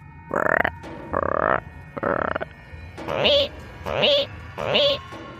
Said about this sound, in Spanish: Los sonidos que los sapos y las ranas hacen cuando cantan en la noche.